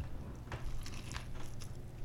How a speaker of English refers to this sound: But yeah, I'm going to do like I normally do to finish this up by taking a bite in front of the microphone. So, no crunch, but here goes.